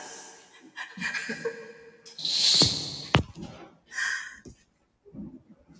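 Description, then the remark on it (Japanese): A fireworks sound effect: a hissing whoosh builds, then a single sharp bang, followed by a fading crackle. Soft chuckling and breathy vocal sounds come before and after it. “花火が花火が鳴り出しましたよ。”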